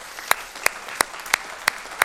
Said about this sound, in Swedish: Ska vi ge Jesus en applåd?